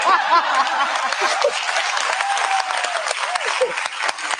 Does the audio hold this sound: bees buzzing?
no